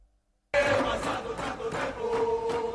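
A large crowd in Naples, outside a bar, chants in unison the football chant 'Siamo figli del Vesuvio', often heard at the Diego Maradona stadium. It begins after a brief silence: a loud, sustained sung chorus with rhythmic swells and a steady melodic line carried by many voices.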